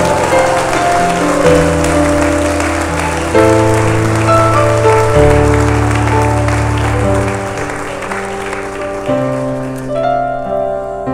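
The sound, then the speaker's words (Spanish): An audience claps and applauds steadily for the one who lives forever, a dense crackling wash of hands over sustained keyboard chords that shift every couple of seconds, fading toward the end. “A dar un aplauso al que vive para siempre.”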